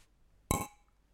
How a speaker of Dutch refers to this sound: Laten we dan eh, voor de eerste keer deze aflevering gaan klinken.